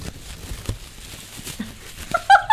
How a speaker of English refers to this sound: Is that nice? Sounds like crunching paper. it's so cool.